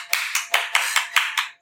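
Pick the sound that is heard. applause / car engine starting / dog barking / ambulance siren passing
applause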